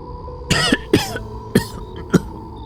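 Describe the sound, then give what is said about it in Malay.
A woman gives a series of four harsh coughs after a foul stench of blood, the first two longer and raspier, the last two shorter, spaced roughly half a second apart with no speech around them. “pada waktu tu terbatuk tapi dengan segera Pak Yus menggosok belakang dia supaya lebih bertenang”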